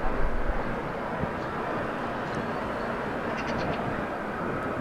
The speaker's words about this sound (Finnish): Mikrofonit vahvistaa työkoneiden ääntä. Ihmiskorva ei kuule niitä näin voimakkaana.